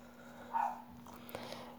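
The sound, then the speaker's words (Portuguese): A single short dog bark, fairly faint, rises briefly over a steady low electrical hum and quiet background noise. “Caralho de cachorro, cara.”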